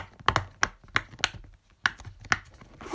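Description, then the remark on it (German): Soft, hollow pops from silicone bubbles on a pop-it fidget toy, about eight clicks in an uneven rhythm with brief gaps between them, no talking. “Auf jeden Fall mache ich jetzt mein Geräusch. Das sind die Plopper vom Poppet.”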